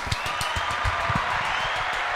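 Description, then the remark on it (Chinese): A steady burst of applause from an audience welcoming guest actor Xiao Ba, dense overlapping claps forming a continuous crackling wash with a few sharper individual claps standing out, holding an even loudness throughout. “我们先掌声欢迎萧爸。”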